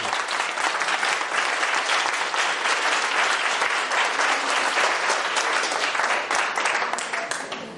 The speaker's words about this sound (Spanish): Aplaudir, joder